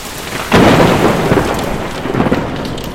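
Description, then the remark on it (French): A deep roll of thunder breaks out over steady, heavy rain during a summer evening thunderstorm, booming loudly at first and then grumbling on while the downpour hisses continuously. No voices are heard. “Maman n'aime pas qu'on sorte, certains soirs d'orage en été. Quand le tonnerre empire, que la pluie se fait plus dorue, elle rentre dans sa chambre pour dormir ou pleurer.”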